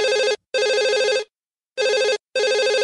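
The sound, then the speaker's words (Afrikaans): A telephone rings loudly in a classic double-burst pattern, two pairs of warbling trills separated by a short pause, with no voices present. “Ooh, ooh, ooh, ooh, daar lê die telefoon. Kom ek antwoord dit?”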